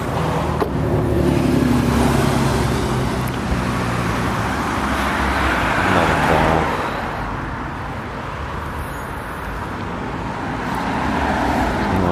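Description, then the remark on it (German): Steady road traffic on a busy street, with cars rumbling past and a broad continuous roar that swells and eases as vehicles go by. “kurz über die Straße hier rübergehen, wenn es dann der Verkehr zulässt.”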